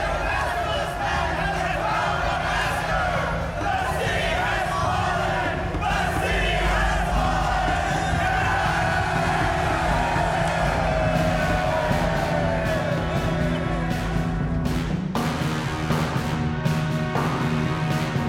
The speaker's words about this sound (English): They cry out. They're shouting. They're shouting with happiness. Listen, they're shouting like troops in a victory.